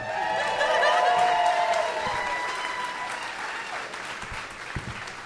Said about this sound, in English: Take as much time as you'd like, just like the guests do they're usually getting more applause during this part, though.